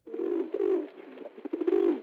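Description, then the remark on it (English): Pigeons cooing in a steady series of low, throaty, rolling calls, clear, with brief pauses between phrases and no other sounds. “He wants to know where are the pigeons?”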